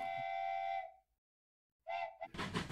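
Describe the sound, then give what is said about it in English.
A steam train whistles for the highway: a long, loud, steady blast that cuts off, then after a short silence a brief second toot followed by a burst of hissing steam. “She's whistling for the highway.”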